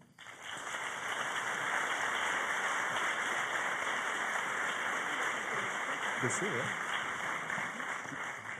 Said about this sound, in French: Merci de l'applaudir très fort.